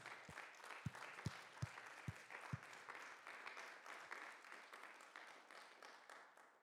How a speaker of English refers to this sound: And so today I want to say thank you to every person in active military, your retired military. Thank you for your service. Can we just put our hands together right now? Come on.